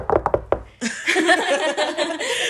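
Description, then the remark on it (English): A quick burst of about five sharp knocks on wood, fairly loud, followed right after by a stretch of lively laughter and overlapping voices. “Y'all started knocking.”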